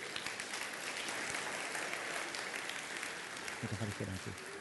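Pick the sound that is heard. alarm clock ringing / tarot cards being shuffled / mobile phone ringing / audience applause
audience applause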